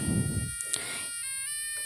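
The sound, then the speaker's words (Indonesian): A goat lets out a single drawn-out, quavering bleat over a low rumble of background noise that fades after the first moment; goats and buffalo are being readied for slaughter for a Mandailing wedding feast. “Puluhan ekor kerbau kambing yang akan disembelih disediakan.”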